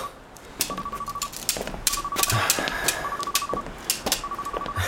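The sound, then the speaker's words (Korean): A pedestrian crossing signal beeps in steady repeating bursts, four short runs of rapid tones over a busy street background with scattered clicks and knocks, as the crossing light changes. “딴 생각하느라 신호음도 못 들었나 봐요.”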